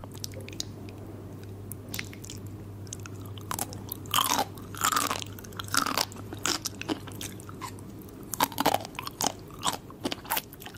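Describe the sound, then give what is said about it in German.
Someone crunching potato chips, with sharp, irregular bites and chewing crackles in bursts, loud against a steady low hum and no talking. “Jetzt kriegen Leute diese Tingles, wenn jemand Chips isst.”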